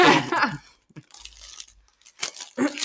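Homemade gift wrapping paper on a small thank-you gift is torn open, with several rough, crinkly ripping bursts separated by brief pauses.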